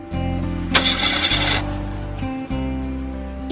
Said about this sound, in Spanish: Ahora su vieja camioneta se negaba a arrancar.